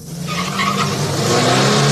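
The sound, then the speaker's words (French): A car engine revs hard in a needless, abrupt acceleration, then tires squeal and skid as it brakes sharply, loud and continuous throughout with no voices; driving that wastes fuel. “Les accélérations intempestives, souvent inutiles, suivies de coups de frein, entraînent une consommation d'essence excessive.”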